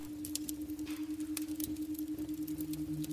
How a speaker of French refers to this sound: Et donc notre utilisateur nous dit que sa maman écoutait ces rythmes binauraux, ce son que vous venez d'entendre, euh, tous les soirs en s'endormant, apparemment ça l'aidait